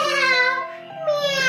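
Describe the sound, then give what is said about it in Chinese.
A voice imitates a little spotted cat's meow in a children's rhyme, a drawn-out, high, wavering "meow" that dips in the middle and rises again, held steadily for about a second and a half. “小花猫喵喵叫。喵”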